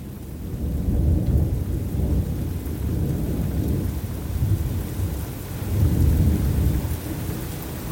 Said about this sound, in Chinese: 突然之间，天空开始乌云密布，滂沱大雨和震耳的雷声笼罩了整片大地，而肆虐的狂风也一阵比一阵狂烈地吹了起来。